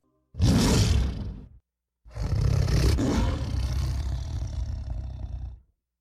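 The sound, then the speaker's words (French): A lion roars twice: a short, powerful burst followed after a brief pause by a longer, deep, rasping roar that gradually fades out. No voices. “Chez les grands félins, lion”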